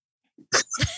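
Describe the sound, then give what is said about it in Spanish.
A single sneeze: a short sharp inhale, then an explosive burst of air with a brief noisy tail, loud against an otherwise quiet background. “Jesús.”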